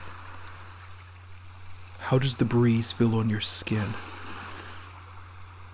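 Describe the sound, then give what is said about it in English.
A steady, soft wash of ocean waves crashes onto the shore throughout, even, while a calm voice speaks briefly over it in the middle. “Allow the sounds of the waves crashing onto shore to contribute to your relaxation, your centering.”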